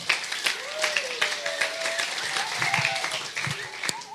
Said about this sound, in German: Und zwar, alle, die es feiern, einmal Applaus für Matthäus 19, 3 bis 6.